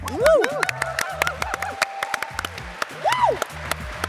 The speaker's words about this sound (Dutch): Kijk, dit is applaus. Harder!